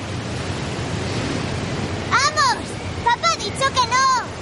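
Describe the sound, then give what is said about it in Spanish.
Rough sea waves roar in a steady, broad wash on a beach flying a red flag, and children's voices shout and call out in short bursts over the surf in the second half. “El mar está encrespado.”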